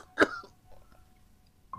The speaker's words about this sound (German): Wieder huste ich und mir rinnt Blut meine Hände herunter.